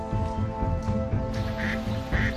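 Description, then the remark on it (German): Several ducks quack in a busy, overlapping chorus on a meadow where people pass by, over a steady low hum of background noise with no talking. “Wie Sie sehen, diese Enten, die interessieren sich überhaupt nicht für die Leute, die hier vorbeigehen.”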